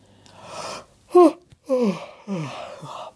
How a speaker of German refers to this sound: Frau Usebuse gähnt. Sie ist müde, sehr müde.